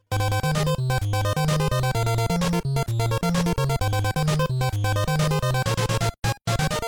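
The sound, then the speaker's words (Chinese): Bright, buzzy chiptune shop music from a video game plays alone on entering an in-game shop, with a bouncing bass line under a busy, steady melody, then cuts out briefly near the end before resuming. “而且他呢，每一次进入商店之后啊，那个背景声音也都会有所改变，哎，这个也是非常一些好的细节了。”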